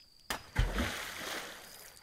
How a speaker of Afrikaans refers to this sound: Nadat sy haar hande gewas het, hoor sy iets of iemand buite in hulle swembad plons.